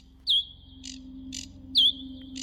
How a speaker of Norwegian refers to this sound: Jo, du skjønner, det har sittet en forbanna fugl utafor vinduet og kvitra og knatra og peppa og plistra sånn at jeg har ikke fått dikta et eneste ord.